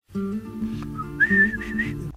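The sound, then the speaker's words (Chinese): A person whistles a short melodic phrase, the tune rising in pitch partway through, with a breathy, slightly airy tone and no talking. “这这嘴巴里的那口哨还是没有口水，对不起啊，所以不溜火。”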